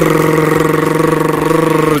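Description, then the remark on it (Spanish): A voice holds a long, steady rolled R imitating an outboard boat motor, buzzing and rattling, loud for about two seconds before cutting off. “Se ha quedado con el trauma del motor del de la, lancha. Motor fuera de borda, se dice, por favor.”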